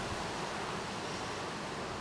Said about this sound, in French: Le temps est super beau, il y a du soleil, mais il fait pas trop chaud parce qu'il y a du vent.